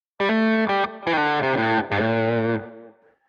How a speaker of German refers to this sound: In der realen Welt klingt dann ein Lick in der A-Moll-Pentatonik vielleicht so.